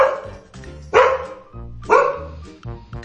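A dog barks, a handful of sharp, loud barks spaced irregularly over a few seconds, with a couple of softer yips trailing at the end. No one speaks.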